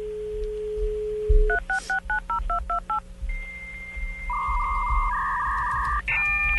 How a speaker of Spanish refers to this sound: Sí, es un sonido cuando uno está marcando al teléfono.